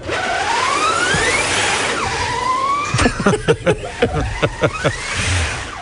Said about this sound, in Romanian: Trebuie să auzi un pic motorul Ia uzi cum face. Să simți mașina, nu?